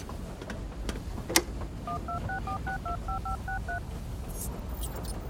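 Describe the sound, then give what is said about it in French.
A rapid sequence of about ten short telephone keypad dialing tones, calling Higgins Bond, evenly spaced and clear, plays over a low background rumble, with a brief sharp click just before. “Il faut qu'on appelle Higgins Bond pour vérifier cette théorie.”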